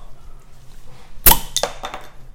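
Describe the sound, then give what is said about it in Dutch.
A sharp cork pop bursts out of a quiet background, followed by a couple of softer fizzing, hissing bursts as the bottle foams over. No one speaks. “Knal die dop eraf.”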